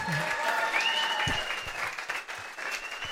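An audience applauds steadily throughout, a dense, even wash of clapping with a faint cheer or whistle rising above it and a few low thumps scattered underneath.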